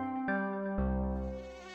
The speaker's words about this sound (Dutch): Voordat we deze vraag gaan beantwoorden, zullen we onze hoofdrolspeler, de mug, even onder de loepen nemen.